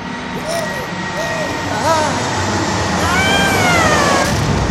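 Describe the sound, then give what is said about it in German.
Wavering, gliding electronic laser tones strike over a steady, loud spaceship engine rumble, with a brief surge near the middle as the beam hits, then longer sweeping whines. “Wir wurden getroffen von irgendwas. Laserstrahl Strahl oder so.”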